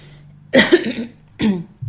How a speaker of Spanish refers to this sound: ya empiezo a toser, ya empiezo a bostezar, ya empiezo a hacer cualquier cosa y yo no quiero editar.